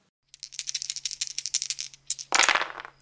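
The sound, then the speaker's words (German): Dice rattle rapidly in a cup, a quick burst of bright clicks, then tumble out with a louder clattering rush at the end. No one speaks. “Auch Frau Glück war sehr abergläubisch und befragte vor ihrem ersten Date die Würfel.”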